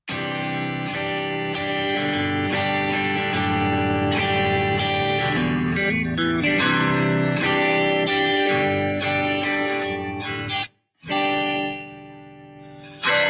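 A Japanese pop song plays loud and steady with a full band and layered harmonic instruments, briefly cutting out near the end before resuming.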